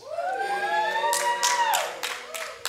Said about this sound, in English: Only three people clapped, so.